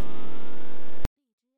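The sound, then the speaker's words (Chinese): A simulated Big Bang sound made by scientists: a loud, dense roar with a steady tonal hum woven through it, lasting about a second before cutting off sharply, followed by a faint voice starting to speak. “那其实是，嗯，科学家模仿的宇宙大爆炸时发生的声音。”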